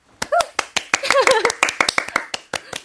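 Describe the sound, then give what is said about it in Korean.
Brisk applause of sharp, irregular claps from a few people, with excited voices whooping and calling out over them, as a live song performance is introduced. The clapping stays steady and fairly loud for a few seconds. “이 노래 라이브 박수로 청해 들어볼게요.”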